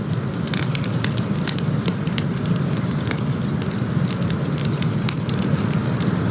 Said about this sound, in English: He was under his motorcycle, and now he and the Dyna were alight, burning like a morbid bonfire in the middle of this scorching desert.